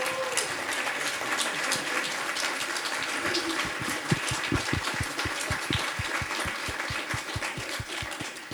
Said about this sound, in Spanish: Así que yo quiero que le demos un enorme aplauso.